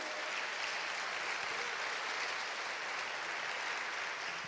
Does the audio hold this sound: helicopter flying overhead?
no